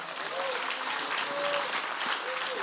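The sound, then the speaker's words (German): An audience applauds for Jesus in a steady, dense wash of clapping that holds at an even loudness throughout, with a few faint voices rising briefly above it. “Da ein Applaus für Jesus.”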